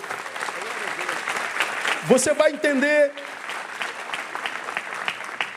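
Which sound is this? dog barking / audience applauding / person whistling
audience applauding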